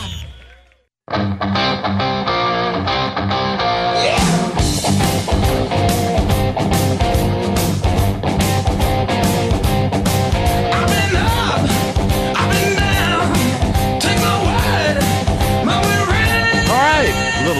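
Loud rock music played on the Rebel Yell Hotline radio show starts after a brief pause, opening with a sustained guitar-like intro before a full band with steady, driving drums kicks in and plays on without any talking.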